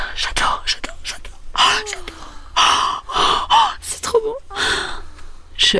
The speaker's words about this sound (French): haletait de plaisir.